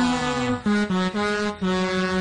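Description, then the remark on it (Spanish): A loud, brassy horn of the race coordinator sounds at a cycling race stage with one kilometre to go, a series of sustained notes, starting with a slight pitch slide and then steady tones that shift up and down in a short melodic call, with no talking. “Pegatina Montoya queda un kilómetro y suena la corneta de coordinadora.”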